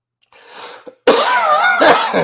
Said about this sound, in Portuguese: perdão pela tosse, que a asma ainda está forte.